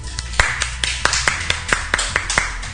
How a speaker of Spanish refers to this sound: Un aplauso.